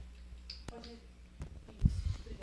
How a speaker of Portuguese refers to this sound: Tá tudo bem, gente? Estamos só passando o microfone para trocar aqui. É bom explicar, explicar pra galera. O meu tá chiando?